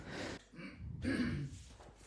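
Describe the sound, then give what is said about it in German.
A low rasping throat clearing in a couple of short bursts, separated by a brief pause, with no speech alongside. “Oh, räusper.”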